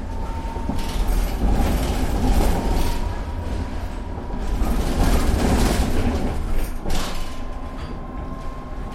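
A line 3 tram heading towards Weserwehr rumbles steadily along its rails, heavy low-frequency rolling with periodic clattering bursts from the wheels and a faint steady hum, loud throughout, with no voices.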